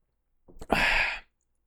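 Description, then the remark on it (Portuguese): A quick sip from a freshly poured shot of whisky, a brief wet slurp followed by a short, breathy exhale lasting about half a second, on its own with no talking. “Deixa eu dar um golinho.”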